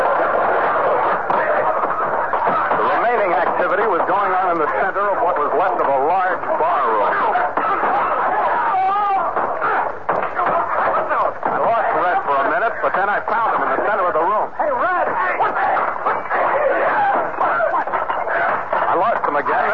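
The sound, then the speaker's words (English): A loud, unbroken din of many overlapping voices shouting and clamoring, like a rowdy bar crowd mid-brawl, holding steady for the whole stretch, pouring out of a bar called the Victory Cabaret. “But judging from the din of battle that poured out at us as we approached, somebody's been a little premature in naming it.”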